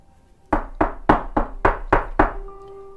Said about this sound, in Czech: Klepání na dveře. Řekl jsem lidem na druhé straně, že potřebuju chvilku na rozmyšlenou a pak výjdu ven.